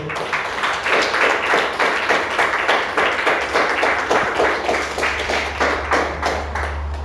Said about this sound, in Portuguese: Aleluia. Aplauda o Senhor.